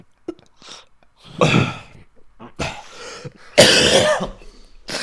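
A person retching and vomiting onto a keyboard: a few short, harsh heaving bursts, rough and throaty, building to a loud, gurgling final heave, with brief quiet gaps between and no talking.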